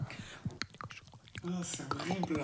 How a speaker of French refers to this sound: Ouais, bah, ça j'entends par exemple. J'entends. Ça aussi j'entends. Ah, ASMR ah,